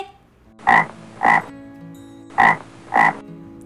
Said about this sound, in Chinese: 你们都猜对了吗？答案就是青蛙。